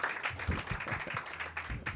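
A crowd at an open mic applauds with dense, overlapping claps that form a steady, fairly loud wash of sound, with a few scattered cheers or voices mixed in.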